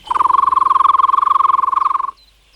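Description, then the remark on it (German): A person whistles one sustained, steady-pitched note with a rapid fluttering trill, loud, lasting about two seconds before cutting off cleanly. No one speaks. “Du kannst am besten pfeifen, …, also pfeife.”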